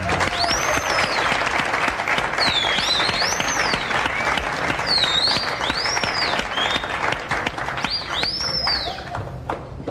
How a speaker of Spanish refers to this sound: A presentar a nuestro panel infantil en el Club del Tío Sunshine. Démosle a un fuerte aplauso al que próximamente va a tomar leche de yegua